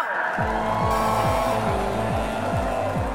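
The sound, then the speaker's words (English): Race car engines roar and rev hard at the start of a race, tires squealing, pitch climbing and dropping repeatedly as they shift gears, loud and continuous with no talking. “Racers, start your engines. In three, two, one, go!”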